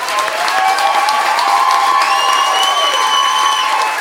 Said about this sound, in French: Mesdames et messieurs, une bonne main d'applaudissement pour Justin Fournier.